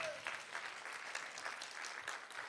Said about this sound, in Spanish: Alguien le puede dar un aplauso al Señor por eso.